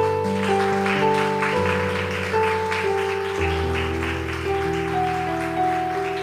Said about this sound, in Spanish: Demos un aplauso.